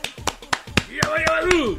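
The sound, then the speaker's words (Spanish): Steady hand clapping, about eight sharp claps at an even, quick pace, with a person's voice starting to talk over the second half. “¿Por qué me vas a aplaudir aparte?”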